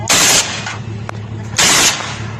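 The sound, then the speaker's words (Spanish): Two loud bursts of rapid automatic gunfire ring out about a second apart, harsh, with a single sharp crack between them and a steady low rumble underneath, during a shootout between criminal gangs in Chihuahua, northern Mexico. “Chihuahua, un enfrentamiento entre bandas delincuenciales. Así sirvió esta balacera ahí en el norte del país.”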